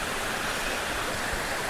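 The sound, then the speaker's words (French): A steady rush of river water flowing over rocks, stones and pebbles, a continuous bright babbling hiss with no pauses and no voices. “Je vois la rivière, des cailloux, des galets, des rochers, des arbres.”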